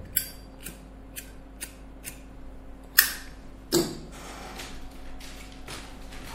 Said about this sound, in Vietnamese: chết mẹ bật lửa hết ra rồi